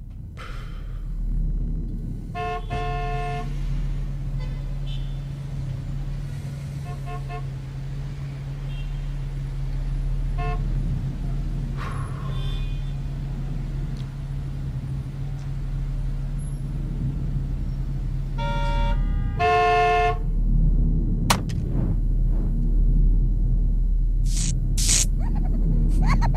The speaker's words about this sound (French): Transport, bloc, ça klaxonne, ça fait deux heures que n'avance qu'à petit feu, peu à peu, je pète les plombs.